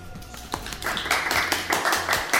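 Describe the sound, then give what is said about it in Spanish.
A small group claps steadily for about two seconds for the members of the Colectivo Sinestesia collective at the journalism-school occupation ('toma de periodismo'); the sharp hand claps blend into a brisk, fairly even rhythm, with no talking over it. “arroba colectivo sinestesia en Instagram, colectivosinestesia.cl es la página web de los chicos, un aplauso para ellos.”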